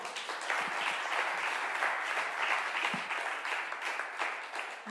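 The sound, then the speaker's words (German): Sustained applause from a sizeable crowd, a dense steady patter of many hands clapping at once, fairly loud and continuous for the whole stretch with no voices rising above it. “Gebt einen Applaus.”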